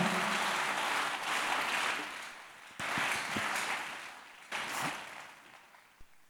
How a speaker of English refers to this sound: You're clapping is what you need. You're not clapping your hands well.